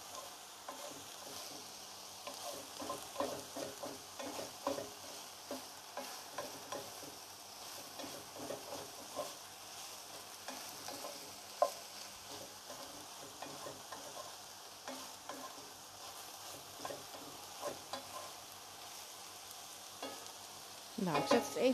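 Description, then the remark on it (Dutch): Food seasoned with salt and black pepper sizzles steadily in a pan over fairly high heat, frying rather than stewing, while a utensil scrapes and stirs it in irregular bursts, with no talking, ending in a slightly louder clatter. “Het vuur staat redelijk hoog. Ook weer om te zorgen dat het eh, niet gaat stoven, maar echt gaat, gaat bakken.”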